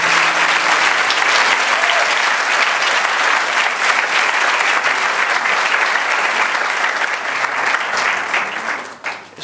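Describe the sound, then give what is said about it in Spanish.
A large audience applauds steadily to welcome people coming forward to be received, a dense, loud wash of clapping that holds for about nine seconds before tapering off at the end. “Den un aplauso a la gente que quiere recibir aquí.”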